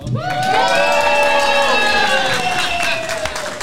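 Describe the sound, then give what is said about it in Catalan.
A live audience of people from Susqueda cheers and shouts loudly at a first live show in public, voices rising together in a sustained roar for a few seconds before starting to fade. “Mare meva, primer directe en públic amb un podcast dels nostres, mare meva”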